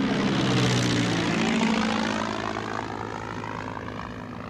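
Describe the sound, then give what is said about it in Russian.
Propeller airplane engines drone loudly and steadily, the pitch sliding gradually downward as the roar fades a little, as several aircraft descend one after another through dense, low cloud to land. “Следом за ней не видя друг друга и ничего вокруг, спускаются остальные самолеты.”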